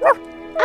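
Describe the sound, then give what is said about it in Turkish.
A neighbourhood dog named Bahtiyar gives two quick barks about half a second apart, with a faint whining tone lingering between them. “Ah, bu köpek senin mi”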